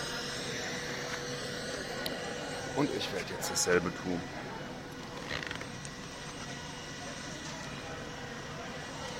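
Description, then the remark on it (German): A helicopter hovers, its steady rumbling drone filling the whole recording at a constant level, while a man speaks a short sentence over it. “Ich glaube, ich warte noch, bis der Helikopter wieder abfliegt.”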